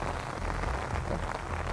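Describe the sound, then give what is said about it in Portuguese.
Steady rain falls outdoors during a walk in the middle of nowhere, a dense, constant patter of drops hitting surfaces, with a low rumbling undertone and no voices. “Como essa caminhada nessa chuva, sozinho no meio do nada.”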